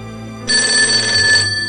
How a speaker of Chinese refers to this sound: 话音刚落，电话又响了，只响了一声。原来，这一直以来，都是妈妈让她的家人知道她很安全的暗号，表示她顺利到家了。